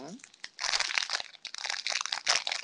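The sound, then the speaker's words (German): Wrapping paper crinkles and rustles loudly as a gift is torn open, a dense run of crisp, irregular crackles lasting a few seconds, with a brief voice at the very start. “dann ziehe ich jetzt erst für mich und den, den ich eben gezogen habe, den packe ich dann gleich”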